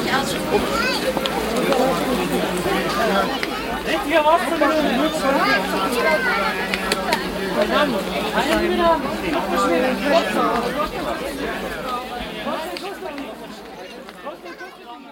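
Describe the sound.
The busy outdoor Brunnenmarkt in Vienna, recorded in June 2013, hums with dense crowd chatter, overlapping voices and occasional louder calls from hawkers, a steady bustling wash of talk that fades slightly toward the end.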